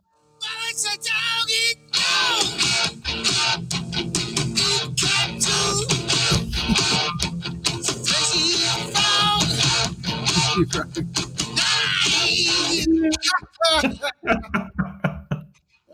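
A loud hard rock intro plays with dense, driving guitars and steady pounding drum hits, full, before cutting off abruptly near the end.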